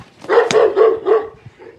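A dog barks four times in a quick, steady run, each bark short and fairly loud, with no voices present.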